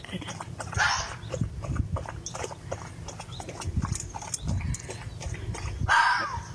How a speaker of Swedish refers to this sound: Men det här skallet, vad är det reven vill signalera? Vem tar den frågan?